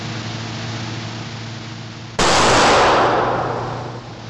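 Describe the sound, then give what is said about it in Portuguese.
A single revolver shot at a shooting range, fired at a cardboard target, cracks out suddenly over a steady low hum, its blast spreading into a broad, hissing reverberation that fades slowly over about two seconds. No one speaks. “E como não faz sentido ir para um estande de tiro se não for para contar vantagem, é importante dizer que meu primeiro disparo já ficou bem próximo ao centro do alvo de papelão”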